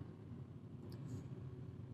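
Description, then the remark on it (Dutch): A car driving on the road, heard as a steady, low rumble of engine and tyres that holds evenly throughout, with no one talking. “Even kijken wat deze auto nou weer gaat doen.”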